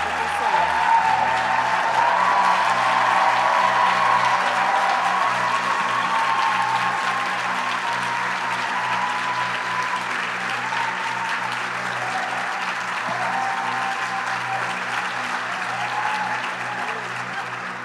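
A sustained round of applause from a crowd, dense steady clapping holding at a fairly loud level for nearly eighteen seconds, with a low hum and some vocal murmur running underneath.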